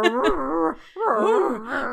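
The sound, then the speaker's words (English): A dog that has just woken up whines and groans in two drawn-out, wavering bursts separated by a brief pause, fairly loud, with no one talking. “Be- besides, my dog is woken up and is now starting to make noise again.”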